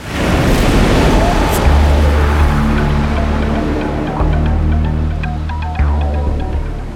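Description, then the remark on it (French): Ocean waves roll onto the shore in a loud, continuous roaring wash, with a low droning hum running steadily underneath. “Le bruit du roulement des vagues est hypnotisant, il calme les esprits.”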